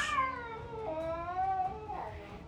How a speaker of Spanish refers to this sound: Y entonces, como una señal silenciosa, las criaturas saltaron unas contra otras y de repente las rocas parecieron cobrar vida con una feroz lucha entre gatos.